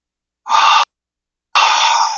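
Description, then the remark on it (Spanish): Two forceful breaths blown out through the mouth during a guided breathing exercise, a short airy puff followed by a longer, steady rush of air that runs to the end. No one speaks. “soltamos por la boca, una segunda respiración y contenemos.”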